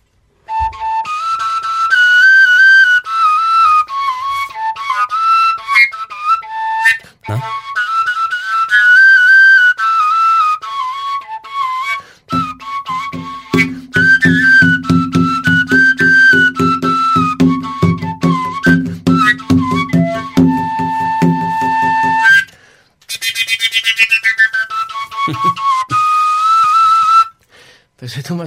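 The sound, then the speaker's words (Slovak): A koncovka, a wooden end-blown overtone flute without finger holes, made from a small branch with a hole bored through the middle, plays a loud, breathy melody that leaps between high overtone pitches in phrases separated by short breaths, with a low buzzing drone joining through the middle. “Používaš dv- dva eh, hlavné prvky ovládania takejto pišťaly no. koncovej.”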